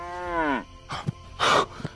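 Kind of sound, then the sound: animal, cow mooing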